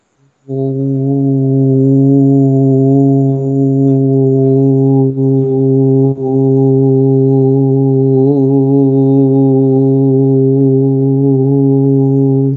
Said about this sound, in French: Donc, on va l'essayer le ou, ou, ou. Moi, je vais faire plus un, son plus grave parce que j'ai vraiment l'impression que ça va dans le ventre plus qu'un son aigu. Alors, on inspire. Ou.